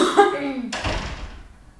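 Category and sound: human body sound, cough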